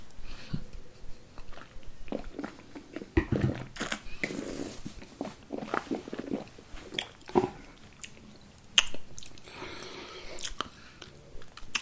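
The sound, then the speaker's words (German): Wet mouth sounds as wine is swished around in the mouth for several seconds, with squelching and sloshing bursts, ending in swallowing noises. No one speaks. “Wenn du den ähm, mal länger im Mund rumspülst, mhm und dann runterschluckst. Also einen ordentlichen Schluck länger spülen und dann runterschlucken.”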